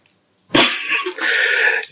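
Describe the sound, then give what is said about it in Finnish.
A single loud, drawn-out burp erupts abruptly after a moment of silence, rasping for over a second before trailing off, with no talking. “Mä röyhtäsin.”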